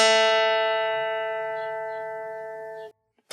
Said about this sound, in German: Das ist jetzt ein Sinuston mit einer Frequenz von 220 Hertz. Wenn ich denselben Ton auf einer Gitarre spiele,